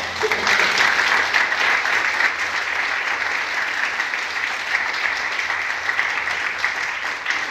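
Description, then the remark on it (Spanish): An audience applauds God steadily for several seconds, a dense, even wash of many hands clapping at a constant loud level with no voices standing out. “Damos un aplauso a Dios, hermanos.”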